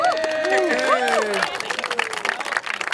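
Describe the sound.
Several voices whoop and cheer with rising and falling cries, then give way to a stretch of scattered, uneven hand clapping from a small group.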